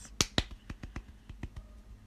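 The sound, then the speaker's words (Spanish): A short run of sharp, separate hand claps, roughly nine in two seconds at an uneven pace. They sound like one or two people clapping rather than a crowd, with no talking. “Aplausos para mi esposa por tener un, parto natural a los 1930.”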